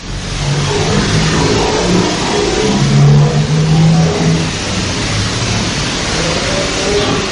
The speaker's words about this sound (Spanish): Se escucha como un grito al final eh, pero al comienzo parecía que hubiera un carro también cerca, estaban cerca de...